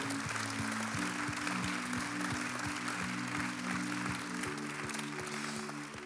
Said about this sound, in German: Lasst uns von Zürich allen Location einen großen Applaus geben.